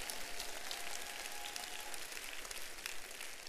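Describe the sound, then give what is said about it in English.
A crowd claps steadily for several seconds, a dense wash of overlapping hand claps with no voices standing out, its crackling texture almost like heavy rain, as the people clap in thanks and praise to God. “And if you're thankful for that, clap your hands and give God praise.”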